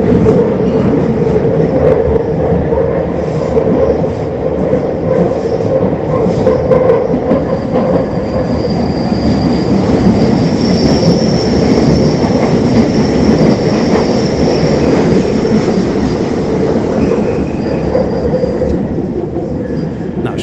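A loud, sustained roar of a London Underground train rumbling through one of the old historic tunnels, with shrill metallic wheel squeals rising and fading on top for about twenty seconds.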